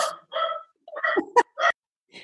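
A dog barks in a quick series of about five or six sharp barks with short gaps between them, heard on its own without talking.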